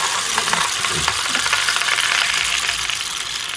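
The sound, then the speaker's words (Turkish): A rain stick filled with organic chickpeas is tipped over, the chickpeas cascading inside in a steady, dense patter of tiny clicks that sounds like falling rain, continuous for a few seconds with no voices. “Ve bu yağmur sesi yapıyor.”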